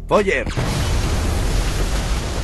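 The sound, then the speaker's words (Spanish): A brief voice fragment is cut off by a huge explosion of charges on the bridge across the Rhine at Remagen as American troops begin to cross. A loud, deep roar of rumbling noise fills the rest of the moment without fading, heavy in the low end. “Se produce una enorme explosión.”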